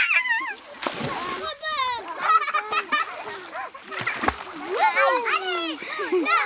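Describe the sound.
Steady spray of running water from a shower being turned on, with splashing throughout, fairly loud, while children's excited voices and high squeals ring out over it.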